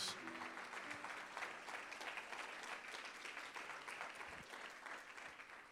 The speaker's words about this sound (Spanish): Si usted lo cree, den un aplauso fuerte al Señor. Vamos.